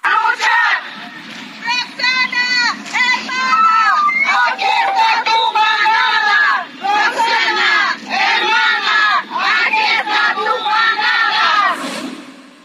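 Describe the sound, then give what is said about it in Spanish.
A large crowd of about 150 women from various collectives chants and shouts slogans in rhythmic bursts, loud, with brief pauses between repeated phrases, at a street demonstration on Paseo de la Reforma at the crossing with Florencia, in front of the steps of the Ángel de la Independencia. “Pero vamos a escuchar un poco cómo se escuchó esta manifestación y parte de las consignas que gritaron.”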